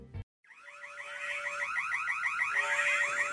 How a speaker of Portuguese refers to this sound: Agora a gente tem uma vinhetinha avisando dos spoilers desse programa.